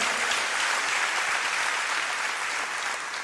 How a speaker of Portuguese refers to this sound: Acorda aí, dá uma salva de palmas ao Senhor.